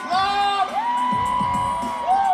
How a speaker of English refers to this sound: One recent Sunday night, a large crowd cheered and partied at the weekly competition Boise's Next Drag Superstar.